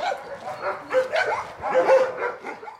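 Several dogs bark and yip in a rapid, overlapping chorus, with occasional whimpers mixed in, moderately loud and echoing, at the animal shelter in Rēzekne, Latvia, which currently houses 15 dogs and about 30 cats.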